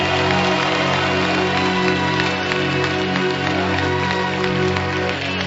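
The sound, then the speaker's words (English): A large group claps their hands steadily and loudly to celebrate the Lord, the dense patter of many claps layered over a sustained, droning musical backdrop with no pauses. “Clap your hands and celebrate the Lord.”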